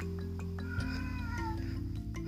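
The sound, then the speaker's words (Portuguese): Cats meow in a drawn-out, wavering cry, rising and falling over a steady low background hum, with a few faint clicks around it. “Enfim os gatos.”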